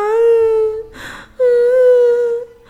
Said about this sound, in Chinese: 飞机起飞时，他们听到一个小宝宝在哭闹。